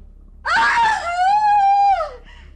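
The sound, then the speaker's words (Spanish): A woman's single long, high-pitched scream rises sharply, holds steady as a loud, wailing cry for over a second, then trails off and falls silent. No other voices accompany it. “Entre los gritos estaba el grito de una mujer.”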